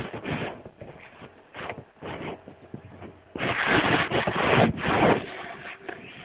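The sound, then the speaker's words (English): Paper being folded and creased, starting with a few short, separate rustles, then a louder, steadier stretch of crinkling and scraping, with no voices. “Wow, who's somebody folding paper?”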